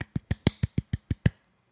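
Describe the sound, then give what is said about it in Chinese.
A quick run of nine crisp hand claps at a steady, brisk rhythm, each a sharp, bright slap, lasting just over a second with no talking. “这个新的单元也更新到第四集了呢，也就是说，我们连续更新了四个月，拍手拍手。”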